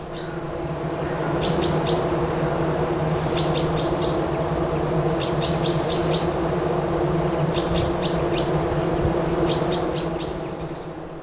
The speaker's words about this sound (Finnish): että sitä oli mahdoton käsittää metrin päästä äänitettynäkin, joka oli minulle aika rohkea teko, koska olen ampiaisille kuolettavasti allerginen, mutta rauhallisesti liikkuen laitoin mikrofonin metrin päähän siitä pesästä. Siellä pörinää piisasi.